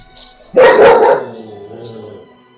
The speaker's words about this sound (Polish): Wściekły pies.